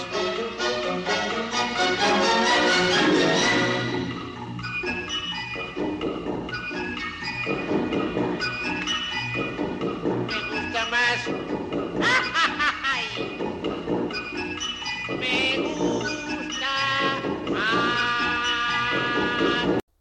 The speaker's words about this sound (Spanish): Hemos escuchado ese número delicioso que son las coplas de Don Hilarión de la Verbena de la Paloma de Tomás Bretón, interpretadas por ….